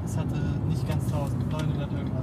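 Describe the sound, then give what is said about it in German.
A steady low engine drone fills the interior of a relatively new car with under 1000 kilometres on it, constant and unbroken throughout, with faint voices murmuring over the rumble. “Wir haben das Auto, es läuft, es ist ein relativ neues Auto, es hat irgendwie unter 1000 Kilometer.”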